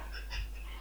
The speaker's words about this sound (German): Okay, äh, du hast aber 14 gewürfelt.